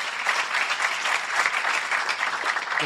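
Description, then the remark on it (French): Steady applause from an audience for the people who hosted them and fed them, a dense crackle of many hands clapping at once, fairly loud and sustained without pause, with no voices standing out. “Qu'on les applaudisse aussi.”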